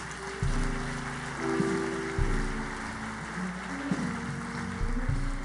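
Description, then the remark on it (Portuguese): An audience applauds in a steady, dense wash of clapping that continues without pause, with low sustained keyboard-like tones playing underneath. “Pode aplaudir, queridos.”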